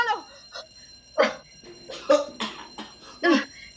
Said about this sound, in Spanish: ¿Qué es esa alarma?